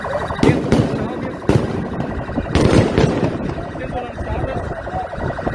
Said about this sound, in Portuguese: Fogos de artifício sendo lançados contra os policiais.